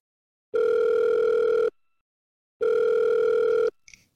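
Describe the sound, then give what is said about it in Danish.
An outgoing phone call's ringback tone sounds twice, each a steady electronic buzz about a second long with a pause between, clear, ending in a faint click as the line connects. “Ej, jeg ringer lige til”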